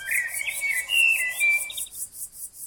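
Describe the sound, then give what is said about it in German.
A western meadowlark sings a flowing run of clear, flute-like whistles that slide up and down for about two seconds, over a steady, rhythmic high-pitched pulsing that continues after the song stops. “Eine Prärieamsel sang ihr Lied.”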